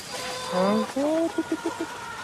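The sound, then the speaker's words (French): Chickens cluck: a drawn-out rising squawk, then four quick, evenly spaced clucks, fairly loud over a quiet background. “Et les poules, les poules, les poules.”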